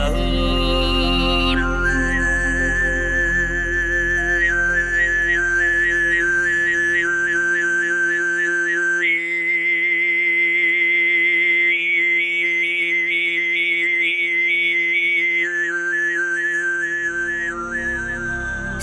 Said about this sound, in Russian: Исполняя сыгыт, хоумейжи одновременно произносит низкие гортанные и высокие свистящие звуки. Отдельно обертоновый свист напоминает флейту, а исполнение в совокупности похоже на гул ветра и журчание ручья.